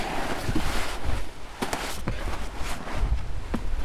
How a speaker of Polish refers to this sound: Wiesz to jest dosyć duży wiatr. Czy moglibyśmy zrobić z tej łódki, jakbyśmy ją na boku położyli, taką osłonę przeciwwietrzną?